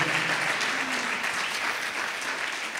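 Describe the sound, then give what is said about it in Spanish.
A church audience applauds the Lord together in sustained, dense applause, a steady wash of many hands at fairly loud volume for a few seconds, with no clear voices. “Amén, dale un fuerte aplauso al Señor.”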